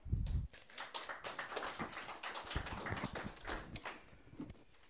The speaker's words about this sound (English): You guys clap now, okay?